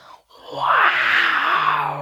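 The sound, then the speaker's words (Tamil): A person imitates a lion's roar with one sustained, rough growling cry lasting well over a second, loud and strained, rising then slowly falling in pitch, after a short breathy lead-in. “அப்படின்னு அப்படியே கர்ஜிச்சுட்டு சண்டை போட வந்துச்சு”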